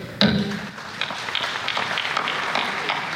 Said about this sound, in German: Als der vielfach kritisierte Präsident der Weltklimakonferenz Ägyptens Außenminister Sami Shukri den Hammer fallen lässt, gibt es viel Applaus. Vor allem von den verwundbarsten Ländern des globalen Südens.